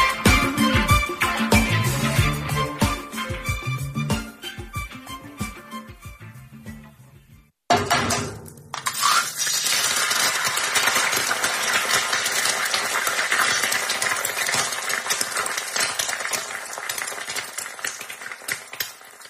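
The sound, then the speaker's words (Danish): A short burst of music gives way to a steady sizzle and crackle of fried eggs cooking in a hot pan, continuing loudly with no voices. “han steger spejlæg herinde, synes Jo, jo, men han er en sand mester til det.”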